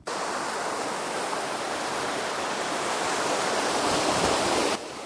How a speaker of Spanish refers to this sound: Esta es la canal, que están cada vez más estrechas para que el agua coja más fuerza.